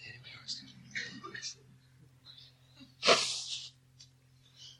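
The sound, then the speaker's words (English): A person blows their nose once, a loud, forceful honk that trails off over about a second, preceded by soft breathy sounds and light rustling. “I think I will blow my nose.”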